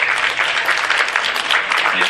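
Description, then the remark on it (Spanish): Steady audience applause for the mothers at a church service on 10 May, Mother's Day, a dense wash of many hands clapping at an even, fairly loud level with no break, for about two seconds. “Bueno, vamos a darle un, un aplauso primero y luego un abrazo a las mamás”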